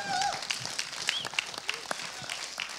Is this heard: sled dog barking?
no